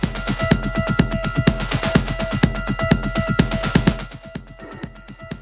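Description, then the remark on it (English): Music played on a Moog Sub Phatty analog synthesizer, with a loud, throbbing bass line pulsing in a fast, steady rhythm under sustained tones, with no voices. It thins out and drops in level for the final second or so. “talking about the Moog Sub Phatty and showing how he used it in the track …”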